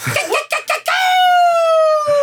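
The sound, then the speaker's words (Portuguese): A person imitates a rooster's crow: a few quick choppy syllables, then a long, loud, held note that slowly falls in pitch, with no other talking. “É, um galo, sei lá.”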